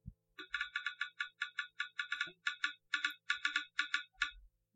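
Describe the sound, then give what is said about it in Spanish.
A rapid series of soft, clicky electronic ticks repeats steadily for several seconds: a smartphone screen reader's sound for an empty area of the screen, with no item or icon to tap, as a finger slides across it. No voices. “Cuando nosotros estamos navegando con el dedo, nos desplazamos y no encontramos ningún ítem ni ningún icono para clicar.”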